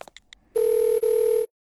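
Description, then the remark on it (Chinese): A telephone ringing tone as someone places a call while walking: a steady, mid-pitched electronic beep sounding twice in quick succession with a brief break, preceded by a few faint clicks, with no one talking. “李潇出门却没看到刘雯，只能一边走一边给刘雯打电话。”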